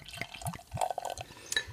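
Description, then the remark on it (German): Beer glugs and splashes as it's poured into a glass, with a few rhythmic gurgling bursts and bright clinks of liquid over about two seconds, no voices. “Ich gieße ein.”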